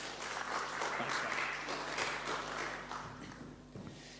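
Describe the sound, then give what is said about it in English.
An audience claps steadily for volunteers, a dense wash of many hands, holding fairly loud for several seconds before easing off slightly toward the end. “Let's hear it for our wonderful volunteers.”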